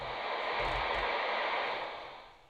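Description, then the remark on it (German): A shortwave receiver's steady background hiss, a broad, even wash of noise with no voices, holding level before fading slightly toward the end. “Also man hört das hier am Eigenrauschen.”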